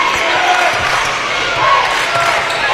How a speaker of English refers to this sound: Central Heights fans into it here. You can hear them loud and proud filling up the stands behind us.